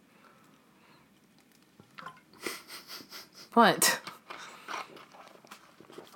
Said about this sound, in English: Excuse me, you paused as I took a sip of water. Oh, you're taking a sip of water.